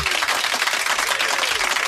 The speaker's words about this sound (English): there's just one correct answer on the whatsapp line and that deserves a round of applause well done